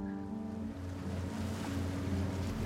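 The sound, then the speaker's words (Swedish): A boat motoring across the sea away from an island, heading to Krabi. A steady, droning engine hum sits under a constant wash of water and wind noise, fairly loud throughout, with no voices. “Ett par timmar senare sitter hon på en båt på väg från ön.”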